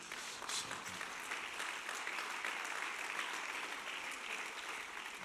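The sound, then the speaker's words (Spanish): Steady applause from a church audience for a deacon, a dense wash of clapping that holds at an even level for about five seconds without pause, with no one speaking over it. “Denle un aplauso a ese diácono obediente.”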